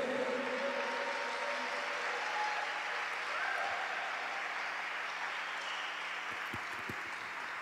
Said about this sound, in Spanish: Apláudele al Señor. Vamos, si vas a aplaudirle, apláudele fuerte al Rey.